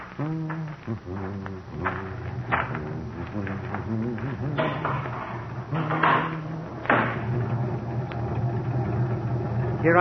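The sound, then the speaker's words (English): A car engine idles with a steady low rumble throughout while voices talk over it and a couple of soft thuds, like a door, sound briefly. “I hope you haven't been sitting here with a motor running all this time.”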